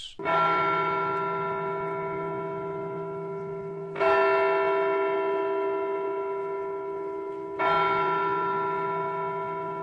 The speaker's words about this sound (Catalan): De nou, la campana va retronyir, aquest cop tres vegades.